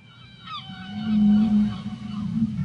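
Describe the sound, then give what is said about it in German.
Humpback whale song: a long, sustained low moan that swells and holds, with faint higher whistling tones drifting above it, echoing underwater with no voices present. “Alle Buckelwale in der Umgebung singen dann nämlich den gleichen Song und jeder ein klein bisschen anders.”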